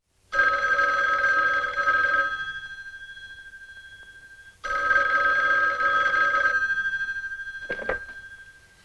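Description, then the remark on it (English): An old-fashioned telephone bell rings twice, each ring a loud, sustained metallic jangle lasting about two seconds, separated by a short pause, with a faint click near the end. “All right, let's get back to that door slam and to that telephone ringing.”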